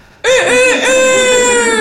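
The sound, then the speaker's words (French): A rooster crows loudly, one long harmonic call with a wavering start that holds steady to the end. There is no talking. “Et le coq là qui est toujours là, tu vois, donc.”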